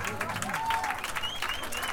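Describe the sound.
Sustained audience applause for a musician playing chitarra battente and mandolin, a dense steady patter of many hands clapping at an even level throughout, with a few thin high whistle-like tones and faint voices mixed in.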